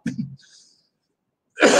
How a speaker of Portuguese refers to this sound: Vou até tossir.